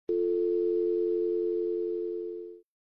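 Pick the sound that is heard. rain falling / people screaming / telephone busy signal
telephone busy signal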